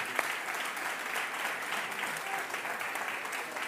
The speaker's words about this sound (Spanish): Qué sí, dense un aplauso a ustedes mismos.